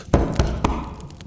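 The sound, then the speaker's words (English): Three firm knocks in an even rhythm, knuckles rapping on a door, distinct, each fading quickly into a quiet, lingering room tone. “As he stands there with Yggdrasil, the tree, behind them, you hear a knock.”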